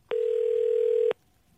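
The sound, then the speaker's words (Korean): A telephone ringback tone while calling a viewer during a live show sounds once: a steady, mid-pitched electronic buzz lasting about a second before cutting off to near silence. No one speaks. “자 8345님 전화 걸어보겠습니다.”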